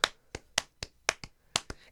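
A handful of sharp hand claps, about nine in under two seconds, arriving in a slightly uneven rhythm as if the clapper is searching for a steady beat. No one speaks.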